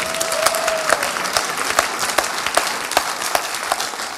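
An audience in a Pentecostal church at New Year claps steadily for several seconds for a woman who has just spoken, a dense, fairly loud wash of many hands with sharper individual claps standing out, and no one speaking over it.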